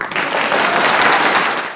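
A burst of applause, dense and steady, with many hands clapping into a continuous, loud crackling wash that fades slightly at the end. No one speaks over it.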